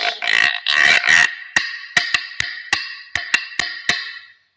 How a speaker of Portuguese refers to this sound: Aqui, através deste instrumento de percussão que nós fazemos os sons.